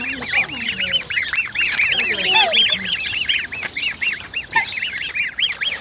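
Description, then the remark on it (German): Black swans and their small grey fluffy chicks call at a duck pond, a dense, steady chorus of high, rapid peeping with occasional lower honks mixed in, continuous throughout. “In diesem wohnen schwarze Schwäne, die kleine graue flauschige Küken haben.”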